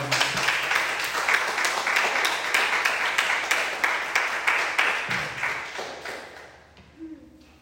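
A crowd applauds for God with dense, steady clapping and a few sharper rhythmic claps standing out, holding strong for about six seconds before thinning and fading away.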